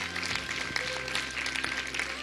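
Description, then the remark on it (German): Steady applause for Jesus from an audience at the end of a church service, a dense wash of many hands clapping at an even level, with a few faint tonal hums and no clear speech. “Lass uns Jesus mal einen Applaus geben, der rettet und heilt und erneuert.”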